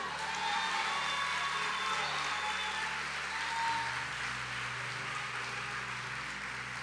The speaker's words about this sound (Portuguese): Se você quer aplauda o nome dele.